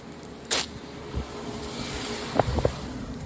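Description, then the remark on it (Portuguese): A car passes by, its steady road rumble and tire noise filling the scene, with a few brief thumps and knocks near the end. No one speaks. “Eh, tá vindo o carro aqui, ó. É. Esperar o carro passar.”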